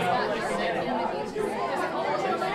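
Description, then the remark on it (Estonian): An auditorium audience talking at once, a dense, continuous murmur of many overlapping voices rising into loud chatter, with no single speaker standing out, holding at a fairly loud, steady level throughout. “auditooriumis tõusis sumin lärmiks.”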